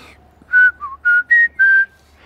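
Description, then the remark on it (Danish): A person whistles a short, bouncy pop melody imitating a blackbird's song: five clear, high notes, with one lower dip in the middle, in an even rhythm, heard alone. It is the tune a blackbird in a home garden began every third or fourth song with one summer. “jeg har haft en solsort hjemme i haven, der øh, øh, en sommer ligesom startede hver tredje eller fjerde sang med”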